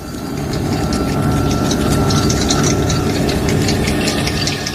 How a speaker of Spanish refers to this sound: Aún sin entender lo que sucedía, percibieron un ruido sordo y lejano. Parecían aviones, muchísimos aviones, y se estaban acercando. A medida que el ruido de aquellos aviones aumentaba, comenzaron a escucharse también sordas explosiones.